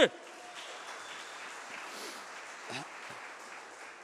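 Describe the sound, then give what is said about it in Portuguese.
An audience applauds Jesus loudly, clapping steadily for about four seconds, a dense, even wash of many hands clapping, with a few faint voices calling out underneath. “Quem está comigo aqui, aplauda Jesus bem alto.”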